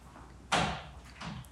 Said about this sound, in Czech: zavírá dveře, protože vedle si někdo píská, tak vy nás nikdo neruší.